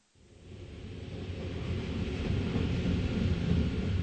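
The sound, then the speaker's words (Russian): A train stopping at Potsdam station in Germany, the last stop before Berlin: a low, heavy rumble fades in and holds steady, a dense mechanical roar with faint rattling that grows slightly louder over a few seconds, with no voices. “Она проснулась, когда поезд остановился в Потсдаме.”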